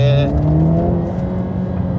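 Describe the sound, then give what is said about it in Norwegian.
A Mercedes-AMG car engine revs up, its loud rising growl climbing in pitch for a moment before settling into a steady drone. “Nå fyrer vi over her og bortover, gjør vi ikke det?”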